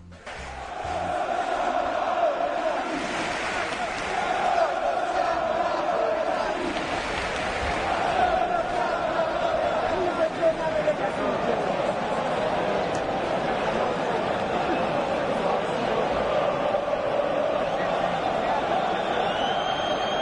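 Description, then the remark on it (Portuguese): A stadium crowd of AS Roma football supporters chants in unison at Napoli supporters, a dense sustained roar of many voices holding a steady melodic line for the full length, loud and continuous with no pauses. The chant tells Vesuvius to wash Naples with fire. “A gente vai começar ouvindo o que a torcida da Roma tem a cantar para os do Napoli.”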